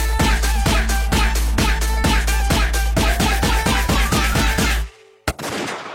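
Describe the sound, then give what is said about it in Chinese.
A string of firecrackers bursts in a rapid, steady run of sharp cracks, roughly four per second, for about five seconds. Then it cuts off, leaving a single pop and a soft hiss. “咚咚咚咚咚咚咚咚，吉祥如意，送你连环礼炮。”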